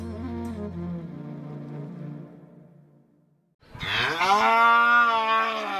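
A black-and-white cow moos twice in a wooden plank pen behind a neatly plastered grey house in a village in the late afternoon: first a long, low, mournful call that fades out, then after a short pause a louder, higher, plaintive bellow that swells and holds.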